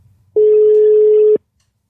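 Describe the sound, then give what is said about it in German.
A single steady ringback tone from an outgoing phone call, a loud, even, low-pitched electronic beep lasting about a second that begins and ends abruptly, with no voices. “Das läutet dem schon mal, ja.”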